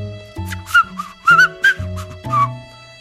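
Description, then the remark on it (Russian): Someone whistles a short tune, four or five brief rising and falling notes, fairly clear, over a steady low musical backing with no talking. “Мик и Фома пробовали еще заговорить с ним, но волк продолжал свистеть.”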